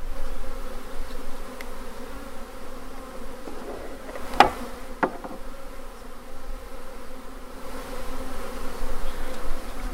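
A swarm of honeybees full of honey buzzes steadily around the speaker's ears, hand and the microphone, a dense droning hum that swells as individual bees pass near, with a couple of sharp knocks or taps around the middle.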